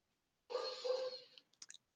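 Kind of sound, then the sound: animal, small dog barking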